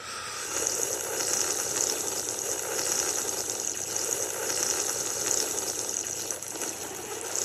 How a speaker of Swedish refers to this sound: Inte svagt sörplande från Niklas Bäckström